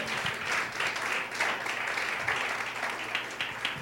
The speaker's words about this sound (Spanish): Denle un aplauso al Señor, déselo, déselo, déselo, déselo, por favor.